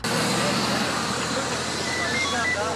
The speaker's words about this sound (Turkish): İstanbul Havalimanı'nda hareketli dakikalar yaşanıyor. Tabii gelen yolcu sayısı çok fazla olduğu için körüklü otobüslerin biri gidiyor, biri geliyor.